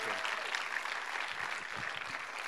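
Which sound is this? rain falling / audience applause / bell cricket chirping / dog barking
audience applause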